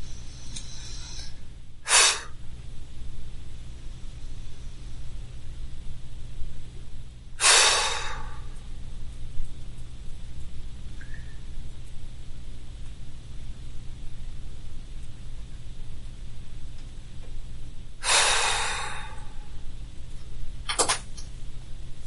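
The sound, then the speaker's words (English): Slow, deep breaths, four airy rushes of inhaling and exhaling spaced several seconds apart, with long quiet pauses between them over a low steady background hum. “Slowly, slowly, get deeper and deeper. Sometimes you may try a little bit fast breathing.”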